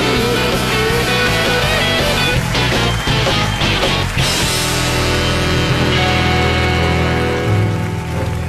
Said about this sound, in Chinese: 现在是大明脱口秀时间，掌声欢迎我们敬爱的大明！